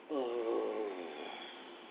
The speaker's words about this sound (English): So let us begin the process by simply inhaling through our nose. Hold it to the count of five, and then blow it out and make a like a humming noise